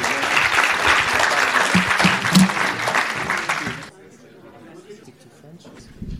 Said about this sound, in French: Merci à tous nos intervenants. je pense qu'on peut effectivement les applaudir.